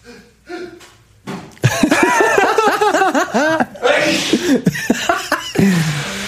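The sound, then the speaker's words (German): Laughter and chuckling lead into a loud, breathy, noisy burst like a nose being blown, followed by a few short snorts and more laughing voices. “ich muss die Nase putzen.”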